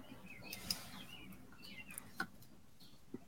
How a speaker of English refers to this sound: I love the the cacophony of birds outside your window in the background while you think. Are they, are they that loud?